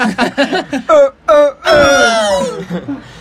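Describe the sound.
A person imitates a tyrannosaurus roar: a few short, choppy vocal grunts, then two brief wails and a long, loud, drawn-out moaning roar that trails off.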